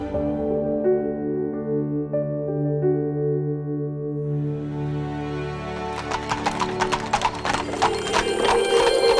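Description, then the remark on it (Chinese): Hooves of the horses drawing the sun god Apollo's sun chariot clip-clopping in a quick, steady rhythm of sharp knocks that start partway through, following a sustained tonal passage, with no one talking. “他驾着太阳马车，真的是酷毙了。”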